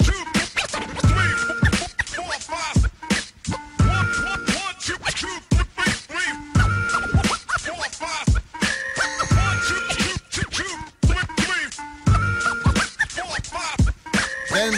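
A hip-hop track plays with a steady, punchy beat and heavy low-end kicks, layered with scratchy, rhythmic samples and tonal stabs; no clear vocals stand out over the loud, dense mix.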